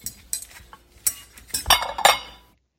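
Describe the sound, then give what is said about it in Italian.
Ceramic plates in a medieval castle clink and knock together as they're handled, a series of sharp impacts that grow louder and busier toward the end before stopping. No voices. “Vediamo un po' come sono fatti questi piatti.”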